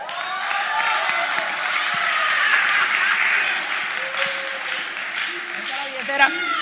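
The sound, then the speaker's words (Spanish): An audience breaks into steady, dense applause for a magician, many hands clapping together in a continuous wash of sound that holds its level for several seconds, with a few voices faintly mixed in. “Por favor, el aplauso para el mago.”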